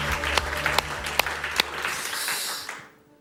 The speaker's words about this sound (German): Der größte Applaus des Tages, der gehört ihm.